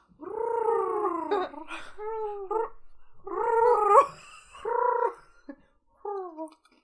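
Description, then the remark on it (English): A person imitates a loon call with a string of wavering, warbling hoots and wails. The phrases are fairly loud, separated by brief pauses, with no other talking. “We need a loon sound.”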